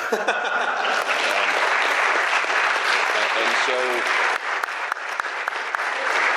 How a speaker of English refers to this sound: Um, but you guys turned that into 2,600 names um, you should give yourselves a round of applause for that, and I because I keep waiting for you to start clapping.